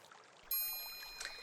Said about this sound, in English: We have something called sensory therapy. It, today, it's the sound of running water. And notice how your shoulders relax within moments of listening to the water.